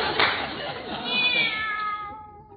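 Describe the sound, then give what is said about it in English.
A cat named Minerva lets out a long, wavering meow that rises and trails off, clear over a soft, hissy background, with no talking. “Come on over here. There's a good kitty.”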